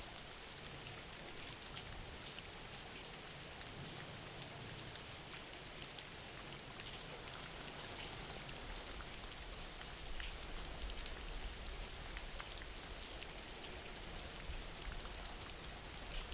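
Steady rain falling, a dense continuous patter of drops across a wide band with no pauses, at an even level throughout; no voices are heard.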